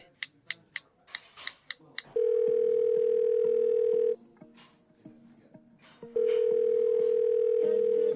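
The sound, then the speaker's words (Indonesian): Quick clicky taps lead into a steady phone ringback tone as someone places a phone call, a long sustained beep that plays for about two seconds, pauses, then repeats, fairly loud and clear with no talking over it. “gua mau telepon si Ben dulu ya”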